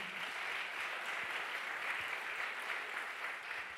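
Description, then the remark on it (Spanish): During a sermon, a crowd applauds loudly for God, a dense wash of many hands clapping at an even, sustained level for the whole stretch, with no voices standing out. “¿Cuánto le dan el aplauso fuerte a papá?”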